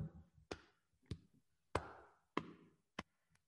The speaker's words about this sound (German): Ihr wisst vielleicht, EMDR war doch das hier. Ja, aber EMDR geht auch über Klopfen.